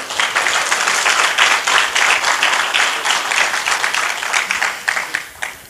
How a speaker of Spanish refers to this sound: ¿Cuántos están alegres de estar en la casa de Dios? Si usted está alegre, dele un aplauso al Señor.